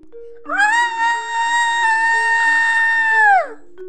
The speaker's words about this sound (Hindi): शशि जोर से चीख पड़ती है